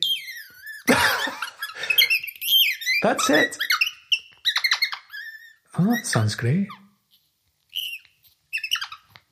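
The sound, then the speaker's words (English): A handheld robin bird-call device squeaks out a series of shrill, robin-like chirps and whistles in uneven bursts, with people talking and reacting between the calls. “Maybe we'll make an extra podcast episode with just just bird calls.”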